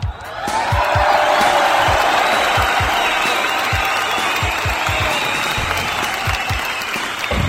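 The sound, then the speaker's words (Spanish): A crowd bursts into sustained, loud applause with scattered cheers, steady clapping filling the whole stretch without pause before tapering slightly at the end; the applause marks one year of broadcasts. “pues yo creo que primero que nada mandamos un agradecimiento enorme hasta la eternidad al grandioso creador de todo esto y pues bueno, que nos permite, nos permite llegar a un año de transmisiones y eso familia pues merece merece un fuerte aplauso.”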